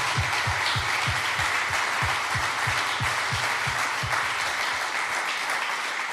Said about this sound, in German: Deswegen lass uns Gott und lass uns den Mitarbeitern und lass uns der Großzügigkeit einen fetten Applaus geben.